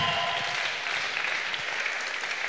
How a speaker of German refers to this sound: Ich würde sagen, lasst uns ihnen mal einen riesengroßen Applaus geben. Ähm, Das war jetzt in der Schweiz war das ein mittelmäßiger Applaus. Wollen wir mal einen riesengroßen Applaus geben, den beiden. Ähm, riesengroßen Applaus, come on. Yes.